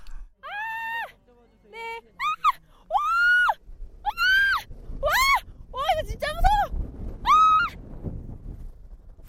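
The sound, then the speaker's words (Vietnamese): Several children and adults scream over and over in sharp, high-pitched bursts while sliding down a snowy slope on tubes, some screams long and others short, with a rushing, scraping noise building underneath as the tubes pick up speed and spin around. “Không chỉ trẻ con mà ngay cả người lớn cũng hét vang lên vì sợ.”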